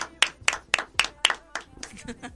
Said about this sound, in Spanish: Aplauso. Aplauso. Aplauso cerrado.